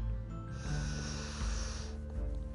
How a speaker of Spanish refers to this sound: Cierro los ojos. Escucho mi respiración.